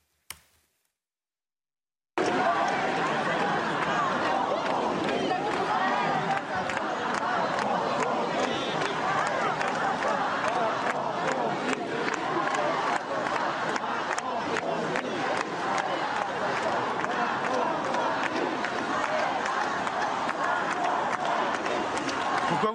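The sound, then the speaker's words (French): A large crowd at a banned pro-Palestinian demonstration in Paris, prohibited by the Paris police prefecture, held in the afternoon, roars continuously with overlapping shouts, chanting voices and scattered sharp claps or bangs. The dense, loud din holds steady after a brief silent opening. “manifestations pro-palestiniennes qui ont eu lieu cet après-midi, manifestations interdites”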